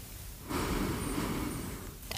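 A slow, deep inhale drawn in through the nose during a loving-kindness meditation breathing exercise, rising at once and holding steady for about a second and a half before tapering off, fairly quiet with no talking.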